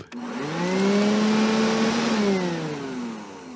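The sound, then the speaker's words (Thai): A vacuum cleaner runs steadily with a loud, continuous motor drone, its pitch rising slightly then easing back down as it moves. No one speaks. “That's the sound of someone's vacuuming. Vacuuming. Or you could say that is the sound of a vacuum cleaner.”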